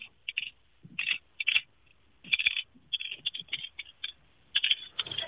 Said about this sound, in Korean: 이건 뭐르겠는데 들리세요? 들리는데 약조제한다는 느낌이 전혀 안 들고 그냥 아따닥 아따닥 하는 것 같은데. 그 약이 떨어지는 소리예요.